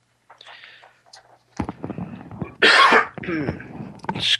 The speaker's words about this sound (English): Please excuse my cough. I just cannot get rid of this thing. If anybody's got any great suggestions on how to get rid of um, some sort of lung thing, let me know.